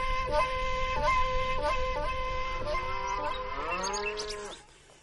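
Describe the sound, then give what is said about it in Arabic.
Cows moo in long, overlapping drawn-out calls, one bellow sliding downward in pitch toward the end before the sound trails off. No one speaks. “كنت نحلف في البقرات”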